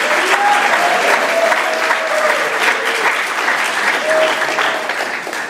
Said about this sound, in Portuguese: Então dá uma salva de Deus, dá uma salva de palmas a Deus, Deus precisa acordar. Dá uma glória a Deus.